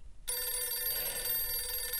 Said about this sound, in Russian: Итак, телефонный звонок.